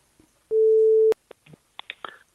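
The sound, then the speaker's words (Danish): A telephone ringback tone sounds once while dialing out on a touch-tone phone, a loud steady hum lasting about half a second, followed by a few faint clicks and handling noises on the line. “Okay, jeg ringer op.”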